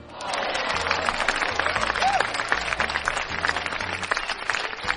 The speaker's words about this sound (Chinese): 好啦，掌声过后，